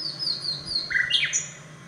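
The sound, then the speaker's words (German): A common nightingale sings a short run of clear, whistled notes that shift in pitch, some sliding downward, heard on its own with no talking, recorded in Bamberg, Bavaria. “Allerdings haben sie aus Bayern bisher nur etwa 70 Aufnahmen bekommen, wie diese aus Bamberg.”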